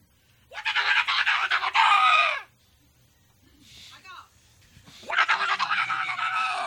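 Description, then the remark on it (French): A human voice imitates the harsh, raspy screeching cry a red-tailed beaver makes when stepped on: two long, loud squawking bursts, separated by a short, quieter warbling sound. “Eh bien, quand on met le pied sur un casson à queue rouge, le casseur à queue rouge émet le son suivant.”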